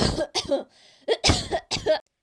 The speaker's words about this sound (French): J'espère que tu te portes bien, pas comme les gens qu'on a entendus tousser au début de l'épisode.